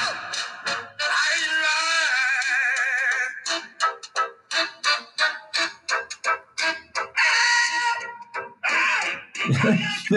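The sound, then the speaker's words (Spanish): Harsh, strained screaming vocals over a heavy metal track, loud and distorted, with long sustained shrieks breaking into a rapid series of short, rhythmic shouted bursts. “cómo gritaba, era una maravilla, pero bueno, pues eso es todo por esta canción”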